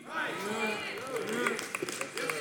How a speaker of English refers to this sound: Some of you giving the golf clap right now. I'm going to get you, I'm going to get you in a full blown one in a minute.